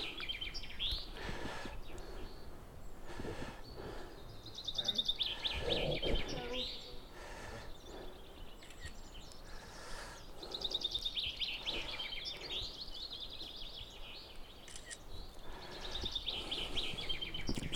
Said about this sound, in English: All of a sudden, we heard the familiar sound of a cuckoo.